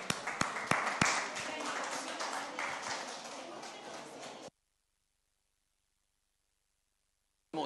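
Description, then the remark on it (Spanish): A crowd at a hot outdoor religious preaching event, asked to stand, applauds loudly for about four seconds. It is a dense wash of claps with a few sharp individual smacks and voices mixed in, then it cuts to silence before a brief burst returns. “Dele un aplauso, señor gigante.”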